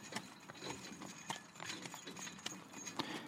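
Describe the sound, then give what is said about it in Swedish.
Horse hooves clip-clop in a steady, unhurried rhythm as a horse-drawn carriage rolls slowly through fields in late summer, the sharp hoofbeats over a soft background rumble. “Kusken spände då tyglarna och lät istället vagnen sakta rulla fram genom fälten.”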